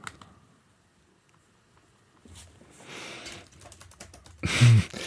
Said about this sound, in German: Und man hörte sie nur noch tippen. Wir haben aufgegeben. Ab jetzt werdet ihr 20 Minuten tippen hören.